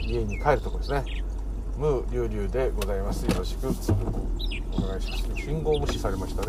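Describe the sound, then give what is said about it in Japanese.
Loud birds chirp steadily outdoors at about 6 p.m. in Minami-Oizumi, Nerima Ward, while a man talks continuously over them, with traffic noise low underneath. “はいというところで、えはい、鳥の声がでかすぎるはいちょっと下げましょうかというところで”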